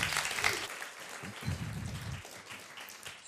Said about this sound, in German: Applaus für, für Jürg.